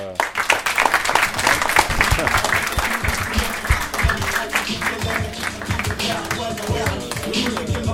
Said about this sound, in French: On vous remercie beaucoup, je crois qu'on peut applaudir.